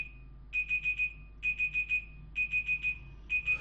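A timer alarm, set for one hour, beeps in rapid groups of four high, electronic tones, the bursts repeating steadily with short pauses between them, fairly loud with no talking.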